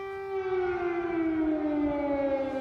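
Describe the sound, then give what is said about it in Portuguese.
A civil defense air raid siren wails steadily over empty Kyiv, Ukraine, its rich droning tone sliding slowly downward in pitch, heard alone with no voices, carrying as if across open outdoor space. “Kiev, capital da Ucrânia, uma cidade vazia que tem o silêncio interrompido pelas sirenes.”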